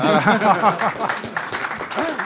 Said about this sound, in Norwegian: Imponerende. Applaus for Erik Huseklepp.